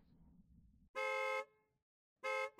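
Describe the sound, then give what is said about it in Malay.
The horn of a speeding car with no brakes blares loudly twice, a long honk of about half a second followed by a second blast after a pause, over a low rumbling engine and traffic background. “Tepi, tepi, kereta tak ada brek, tepi. Bunyi apa bising-bising tu? Eh, Kenapa kereta laju sangat?”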